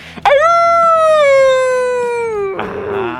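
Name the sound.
person imitating a howl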